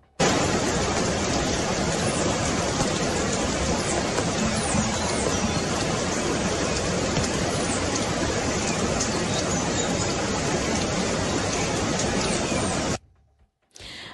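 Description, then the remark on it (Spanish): A small green-and-blue bird in Colombia sings in high, thin chirps over a loud, steady rush of water that fills the scene, then everything cuts off abruptly near the end. “había un sonido ambiente que seguramente era como de agua, pero ahí alcanzábamos a oír el canto de este pajarito”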